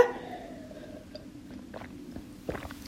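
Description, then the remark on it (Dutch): Someone takes a quiet sip of water, with soft wet mouth and swallowing sounds and a small click near the end, and no talking. “Ik moet even een slokje water pakken voordat ik naar mijn tip 5 ga.”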